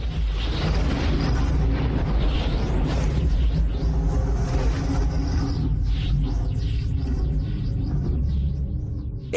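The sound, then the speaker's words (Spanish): A deep, continuous roar of rolling thunder from an electrical storm in the clouds of Jupiter fills the whole stretch, heavy low rumbling with swooshing crackles sweeping through it, loud with no voices. “Todas esas nubes mantecosas han provocado una tormenta eléctrica. Un solo rayo es 10.000 veces más intenso que cualquier relámpago terrestre.”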